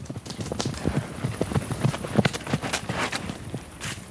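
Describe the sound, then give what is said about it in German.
Two ponies' hooves trotting on a lush green meadow in front of a house, a steady run of soft, muffled thuds, with rustling as the animals move. “Molly und Pedro sind zwei Ponys, die auf einer saftig grünen Wiese vor unserem Haus leben.”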